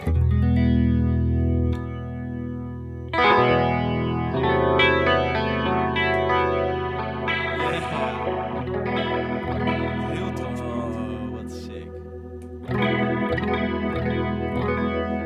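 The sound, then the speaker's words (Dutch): Electric guitar played through a chorus pedal called the mini, with shimmering, wavering tone. Strummed chords ring out loudly over about fifteen seconds, with sustained notes and fresh attacks around three and thirteen seconds. “Dan heb ik de mini die klinkt echt fantastisch.”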